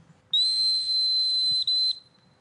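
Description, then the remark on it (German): A loud, shrill dog whistle, blown to call back a hunting dog during a hunt with a hawk, sounds one steady high tone held for about a second and a half, with a split-second break near the end before it stops. “Jetzt pfeift man einmal her”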